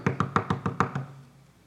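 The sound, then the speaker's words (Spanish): A rapid burst of six hard, loud knocks on a door in quick insistent succession, then a short fading resonance. “Pues cuando estaban terminando de comer, tocaron la puerta, hermano. Pero tocaron como a uno no le gusta, ¿va?”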